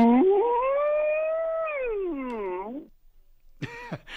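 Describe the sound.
A male caller imitates the mooing of a cow in heat, a long drawn-out low then rising and falling bellow lasting nearly three seconds, followed after a pause by a short second vocal burst.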